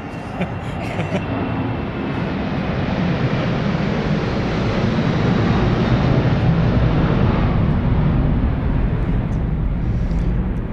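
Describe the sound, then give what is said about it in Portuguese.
A loud, steady roar of an airplane passing overhead fills the scene, a broad rumbling wash that swells slightly and holds for the whole stretch with no talking over it. “que há os aviões que nos ajudam a pensar que ou, ajudam os convidados a pensar melhor na resposta, ou nós uh, eh, encontrarmos melhor no tema, como, como agora vem um avião bom.”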